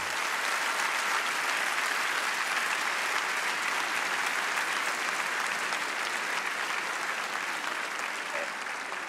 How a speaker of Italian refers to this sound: Accogliamolo con un bel applauso!